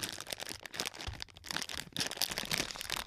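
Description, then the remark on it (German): Continuous crinkling of a plastic M&M's candy bag being pulled and torn open, with dense crackly rustles and a few sharper rips over about three seconds, no voices. “Es ist schwerer als gedacht, äh, eine MM-Packung zu öffnen.”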